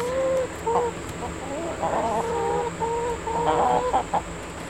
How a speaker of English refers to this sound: And there's a chicken coop.